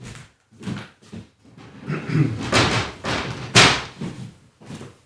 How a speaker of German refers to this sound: Das ist die Schiebetür. Kennen wir ja alle schon mittlerweile.